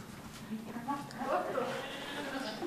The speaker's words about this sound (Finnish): Petterikö ei halua lähteä, Petteri Vuohi.